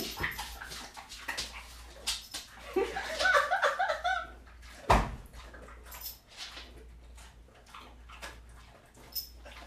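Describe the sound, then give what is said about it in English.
Wet dog mouth sounds, a steady run of smacking, licking clicks with a brief squeaky, whiny stretch in the middle and one sharp louder snap near the halfway point. “All right, time for some doggy ASMR.”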